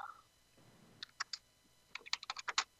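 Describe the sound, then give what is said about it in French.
Keyboard typing as a message is written: a few isolated key clicks, then a quick burst of rapid, uneven keystrokes toward the end. No one speaks. “Je te le marque euh, dans le message pour pas que les personnes entendent.”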